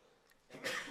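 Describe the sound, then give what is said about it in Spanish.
A single sharp sneeze bursts out after a brief quiet moment, loud and breathy, cutting off abruptly at the end. “Me dieron ganas de estornudar.”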